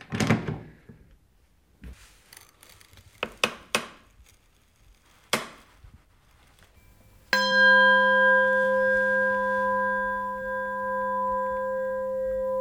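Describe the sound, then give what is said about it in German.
Several irregular knocks and taps on metal, then a smith strikes his newly bent brass S-bow for a serpent, a hollow tube of 1 mm wall; it rings with a clear, steady, bell-like tone and bright overtones, sustained for seconds and fading slowly, showing the bow has no crack. “Der helle, reine Klang bestätigt ihm, dass sein Bogen keinen Riss hat.”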